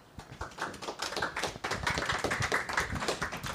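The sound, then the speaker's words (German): An audience claps at a reading event, welcoming Matt S. Bakowski, the author of the first text. It begins with a few scattered claps and quickly builds into steady, dense applause that continues at an even level with no voices. “Applaus bitte für Matt S. Bakowski.”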